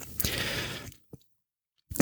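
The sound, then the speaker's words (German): Crunchy chewing with moist smacking mouth noises fills the first second, then a faint click, a short silence, and another loud chewing burst at the end. “Und dazu ist auch diese was schmatzt man da?”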